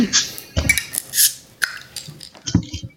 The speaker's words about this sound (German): ja, wollen wir erstmal das Bier aufmachen, damit wir ein bisschen hier irgendwie ja. die, die, Stimmung äh, auflockern?